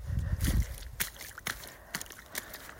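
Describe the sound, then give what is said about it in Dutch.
Wet squelching footsteps tread through soggy ground still covered in a lot of water, about four or five steps in a steady walking rhythm, with a deeper splashy slosh at the start. “Nou, het is minder waterig als van de week. Maar er ligt nog steeds veel water.”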